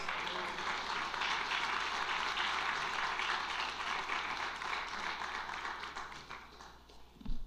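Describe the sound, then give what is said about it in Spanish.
A church audience applauds God in a steady, dense wash of clapping that holds evenly for several seconds at moderate loudness, then tapers with a brief thump at the very end. “¡Aplaudo a Dios mientras tomo agua.”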